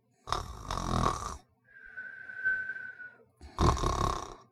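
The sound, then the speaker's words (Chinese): Snoring while dozing: two rough, rattling inhaled snores with a thin, high whistling breath out stretched between them, loud and steady with no talking. “其实呢，她是只猫头鹰，总是打着盹儿，半睡半醒。”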